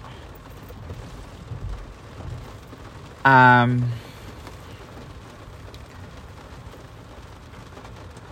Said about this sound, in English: Holy shit, it's raining a lot.